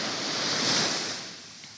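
Ocean waves rushing in a broad, steady wash of surf that swells slightly toward the middle and then eases back, heard alone without any voices.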